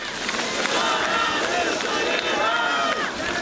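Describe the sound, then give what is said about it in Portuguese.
A crowd of workers protesting in the streets of Amazonas against a state government decree restricting commerce, carrying placards, shouts slogans together, a dense, steady roar of many overlapping voices that stays loud and continuous throughout, with some individual shouts rising above the mass. “Os trabalhadores percorreram diversas ruas da região com cartazes e gritos de ordem.”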